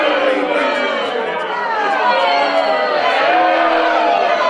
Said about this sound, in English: You hear all the angry people over there? Jesus, there's a lot of people there.